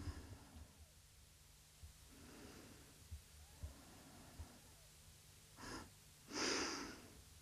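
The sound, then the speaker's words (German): A woman breathes heavily and noisily, with a few short snorting bursts and two louder, rushing exhales near the end; no one speaks. “Der Schnaufer ist übrigens die Schnauferin.”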